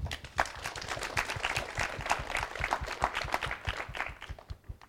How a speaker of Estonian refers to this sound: aga võtame suure aplausiga